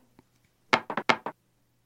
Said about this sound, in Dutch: Nou, ik weet niet of je de dobbelstenen hoorde, maar eh, die hebben we het gedaan. Komen uit op 19. Het, twee, is een appje wat ik gebruik. En dan schud ik mijn telefoon en dan hoor je die dobbelstenen inderdaad rollen.